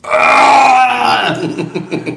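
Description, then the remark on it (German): A person imitates a loud, bellowing retching roar, a strained harmonic-rich cry for about a second that breaks into rough, gurgling grunts and gasps. “Genau wie sich die Tonspur fühlt und dein Ohr, so habe ich leider röhren müssen.”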